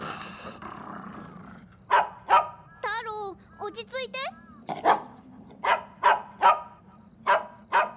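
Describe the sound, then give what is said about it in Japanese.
Taro, a dog, growls low and steadily toward the far end of a path into a mountain forest, then breaks into a series of sharp barks with a few whining yelps mixed in partway through. “突然太郎が道の奥に向かってうなり声を上げました”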